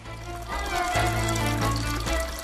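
Steady running water in old Jewish ritual baths seven metres underground, beneath a restaurant in Görlitz, Germany: a continuous splashing flow with a low hum underneath and a faint murmur of voices at moments. The water is 6 to 10 degrees.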